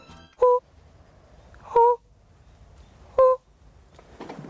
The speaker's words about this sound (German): Der Lockruf der Rotbauchunke. Geht es der seltenen Kröte in diesem Tümpel noch gut?